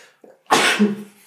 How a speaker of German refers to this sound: Gesundheit.